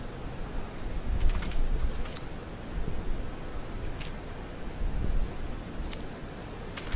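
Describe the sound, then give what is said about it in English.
Steady wind buffets the microphone outdoors, a continuous low rumbling roar with a broad hiss on top and occasional brief crackles, fairly loud, with no one speaking. “it's a little windy out here.”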